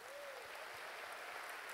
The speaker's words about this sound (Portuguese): Você pode dar um aplauso para eles?